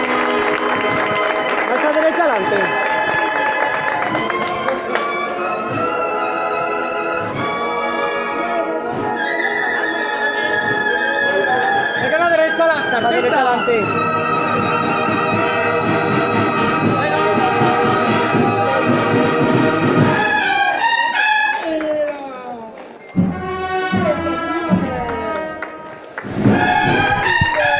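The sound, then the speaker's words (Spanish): The cornet and drum band of the Gran Poder de Granada plays the march Caridad loudly as Jesús de la Caridad advances in procession, with bright, sustained brass phrases over steady drumming and crowd murmur; the music turns choppier, with short breaks, near the end. “Suena la marcha Caridad, interpretada por la banda de cornetas y tambores del Gran Poder de Granada, sonidos trianeros.”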